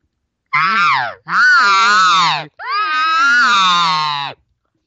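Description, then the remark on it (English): Three loud cow elk contact buzzes, also called estrus buzzes, blown on a reed elk call with light pressure, each a nasal, wavering whine lasting about a second, separated by brief gaps. A person imitates the cow with the call. “might have the Elk Nut app, look at the contact buzz and you'll hear that cow going like crazy using that sound”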